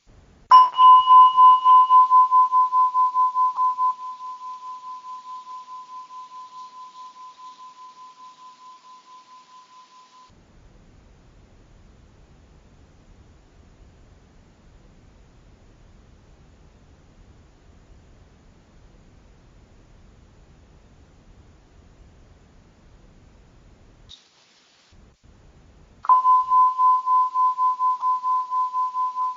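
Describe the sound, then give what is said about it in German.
A singing bowl is struck once to open a breathing meditation, ringing out in a clear, steady mid-pitched tone that slowly fades over several seconds into near silence, then is struck again and rings strongly. “Und ich lade hier jetzt mal eine Klangschale. Für den Dauer der Klangschale sind wir dazu eingeladen, einfach zu atmen, leicht zu lächeln und innezuhalten.”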